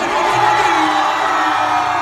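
A concert crowd in Shanghai, the audience on the left side, screams and cheers in a steady, loud roar, high-pitched shrieks and whoops blending into a continuous wash of noise for the whole two seconds, with no one speaking.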